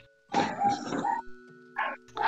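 A dog barks, first a long, rough run of loud barks, then after a short pause two quicker barks, with a faint steady hum in the background.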